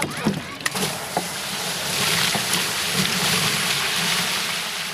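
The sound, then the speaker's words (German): A watering can is dunked and filled in a water barrel, with continuous sloshing and gurgling, a few knocks at the start, then a steady rushing fill. “Genau, den befüllen wir immer mit Wasser. Damit, und da befüllen wir dann auch eigentlich immer die Gießkannen drin.”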